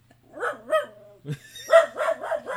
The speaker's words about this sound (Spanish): Gente, mi perro me acaba de joder la grabación. Mira. Ya, que estoy grabando.